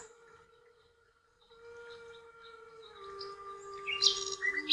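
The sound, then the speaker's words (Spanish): Birds sing and chirp over a steady sustained tone, growing livelier and more layered toward the end, with bright high tweets bursting out in the final seconds. No one speaks. “De esta manera, con los cantos de las aves cerca de ti, seduce a tus oídos.”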